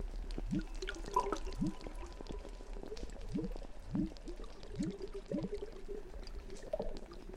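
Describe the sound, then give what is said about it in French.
Water moving and gurgling steadily, with a series of low, bubbling glugs recurring about once a second over a constant liquid wash. No voices. “Il suffit d'écouter le mouvement et l'eau.”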